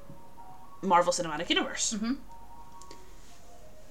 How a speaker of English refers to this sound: Sorry if you can hear the ice cream truck in the background, guys. I'm not sorry, I want ice cream. it's not actually an ice cream truck.